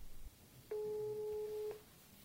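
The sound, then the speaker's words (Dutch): A single steady telephone ringback tone of an outgoing call to a studio sounds for about a second, a clean electronic beep heard alone over faint background hiss. “En dat deed ik met een telefoontje naar de studio.”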